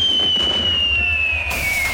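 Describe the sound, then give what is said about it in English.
Fireworks going off: a long, slowly falling whistle rides over a continuous low rumble and crackle, loud, with no distinct single bang standing out. “Remember, remember the 5th of November with an award winning fireworks musical display.”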